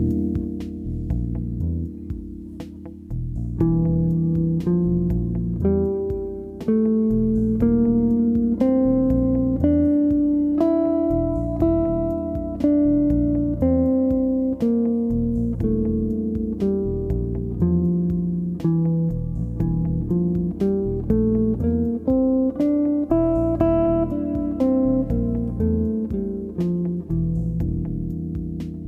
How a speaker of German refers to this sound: Also hier ist Beispiel 1, wie in anderen Episoden auch, spiele ich die Tonleiter einfach einmal aufwärts bis zum Grundton und dann wieder abwärts. Hör mal hin.